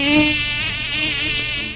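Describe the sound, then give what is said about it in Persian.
A mosquito whines steadily in a hotel room for under two seconds, a thin high-pitched buzz that wavers slightly in pitch but never breaks, with no voices around it. “پشه که سابق بر این رو سقف اتاقم سر کلش پیدا میشد این بار توی اتاق هتل سر کلش پیدا شد و باز مثل همیشه رفت نشست رو سقف اتاق صاف روبروی خط نگاه من”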